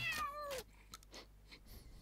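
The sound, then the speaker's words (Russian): A cat in the video game Postal lets out a single loud, drawn-out meow that slides downward in pitch, followed by a stretch of faint scattered rustling and soft clicks with no talking. “А можно снять кота?”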